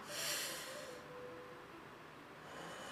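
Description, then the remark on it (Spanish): A deep, airy breath drawn in with a hissing rush, with eyes closed, then a softer, steady exhale that swells slightly again at the end. Fairly quiet, with no talking. “Cierra los ojos, cierra los ojos, haz una respiración profunda.”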